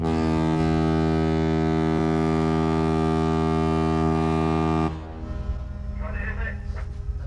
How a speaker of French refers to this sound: Il est 9h dans le port de Cotonou. La corne de brume signale l'appareillage imminent du patrouilleur Premier Maître Lair, un navire datant de 1981, le plus vieux bateau militaire de la marine française encore en activité.